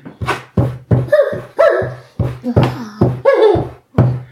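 A dog scratches and whimpers, yelping in a string of about nine short, fairly loud bursts, some drawn into whiny rising tones, with brief pauses between them and no talking.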